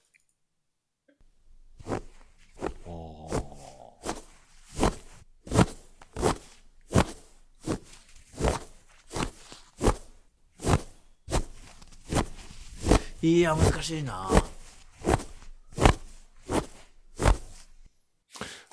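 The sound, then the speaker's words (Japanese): Foley footsteps crunching on snow, a steady walking rhythm of about twenty crisp squeaky steps, with a person speaking briefly over them partway through. “雪の上を歩く足音ですよね”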